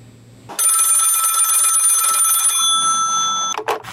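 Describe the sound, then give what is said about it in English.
A loud telephone bell rings steadily for about three seconds with a bright metallic trill, then cuts off with a brief click as the answering machine picks up. “We're gonna listen to actually Hermie's answering machine as it's playing.”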